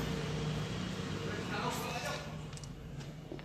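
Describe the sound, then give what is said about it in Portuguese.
A steady wash of street traffic in the morning, with engines rumbling and a car swelling past midway before the noise settles back into a constant low roar. “É um barulho do caralho nessa rua aqui de manhã, meu. Olha aí, ó, filha da puta. Todo mundo tem carro, é filha da puta.”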